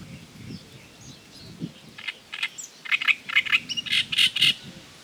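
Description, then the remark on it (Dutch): A great reed warbler sings from the reeds in loud, harsh, rhythmic bursts of croaking, grating notes, building in intensity over low background rumble; no one speaks. “Ja, er hier drie rietstengels bij elkaar en daar zit de grote karakiet”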